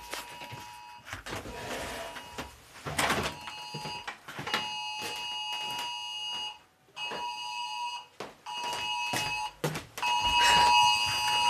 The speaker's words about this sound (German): Was ist das denn? Äh, heute ist Deutscher Warntag und man kann in seinem iOS Testwarnungen aktivieren. Und das ist die oh. Testwarnung. Probealarm, bundesweiter Warntag.